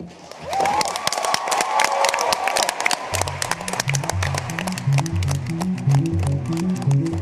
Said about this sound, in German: Da herrschte nochmal Jubel. Kurz vor Weihnachten gab es gestern noch eine gute Nachricht aus dem kalten Montreal. Die knapp 200 Staaten der Welt haben sich auf ein Weltnaturabkommen geeinigt und das war der Jubel